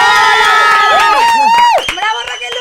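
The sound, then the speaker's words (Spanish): A loud crowd cheers and whoops, welcoming Team Cielo from the show La Casa de los Famosos, with high, rising and falling shouts, mixed with scattered claps, then the noise drops somewhat near the end. “El día de hoy tengo con ustedes al Team Cielo y tengo por aquí a mi queridísima Ferca. Un aplauso.”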